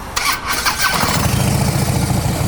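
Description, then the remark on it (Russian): A motorcycle engine cranks briefly, then fires up into a deep, throaty rumble through loud Screamin' Eagle aftermarket exhaust pipes, idling steadily with no voices. “Ну, трубы, звук, скримен игл, классика, музыка.”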